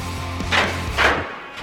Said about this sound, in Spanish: Abriendo la puerta en conocimiento. Abriendo la puerta. Cerrándola también.